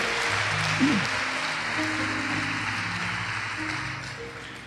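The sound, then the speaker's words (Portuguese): An audience applauds steadily for several seconds, a dense, even wash of clapping for Jesus during a sermon, with low sustained musical tones humming underneath. “Pode dar um aplauso para Jesus?”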